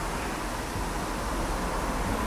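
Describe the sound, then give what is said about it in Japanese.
A steady, continuous rumble of road traffic from cars fills the background, a dense low wash of noise with no distinct passes or breaks and no voices, heard as morning grows light, by a road leading toward the sea. “空気としては自動車の振動が一番ドミナントで一番強く空気を揺らしているかもしれません”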